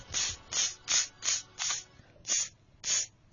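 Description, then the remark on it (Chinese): A voice imitates the sound of floral water (huaLuShui) and mosquito repellent being sprayed from head to toe against mosquitoes. It makes about seven sharp, breathy hissing bursts in a steady rhythm, each lasting under half a second, with short pauses between and no talking. “拿这个花露水儿就就就和这个蚊布丁啊，从头到脚就在那喷呐。”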